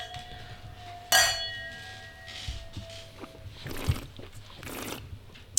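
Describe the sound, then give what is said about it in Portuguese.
Glasses clink together once in a toast, a bright chime whose clear ringing tone lingers for a couple of seconds, followed by soft handling and rustling sounds. “um brinde a isso. Um brinde a isso. Um brinde.”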